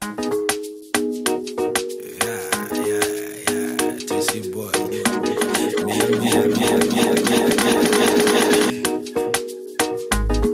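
An upbeat Colombian Afrobeats track plays at full volume, with steady percussion, a bouncy bass line and layered synth melodies building into a dense groove, with no talking over it.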